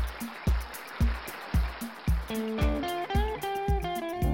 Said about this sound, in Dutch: op de achtergrond hoort u als het goed is applaus. Het is alweer lang geleden dat er voor de zorg is geklapt en daarom doen wij het vandaag nog maar weer eens